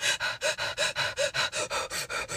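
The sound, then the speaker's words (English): Rapid, rhythmic breath-of-fire breathing exercise, about twelve forceful panting breaths in steady succession, loud with no talking. “feel like a dog, like you're panting. This is the breath of fire.”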